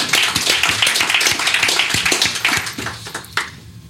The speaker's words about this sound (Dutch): Krijg je ook applaus.